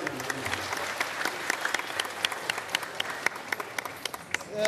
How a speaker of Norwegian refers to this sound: Filmen om fiskeselgeren som elsker fotballaget Chelsea og kjøper laget sine trøyer til alle som jobber for seg, får fram mye humring i salen og stående applaus under rulleteksten.